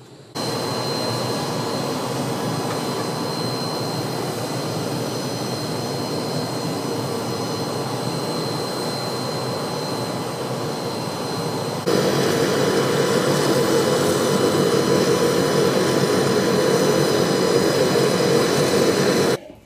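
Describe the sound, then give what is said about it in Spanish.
A steady, droning jet engine roar heard from inside the cabin of a jet flying to Cancún, with a faint high whine on top; the rumble grows noticeably louder partway through and continues without any voices. “Ya estamos en el jet y vamos para Cancún.”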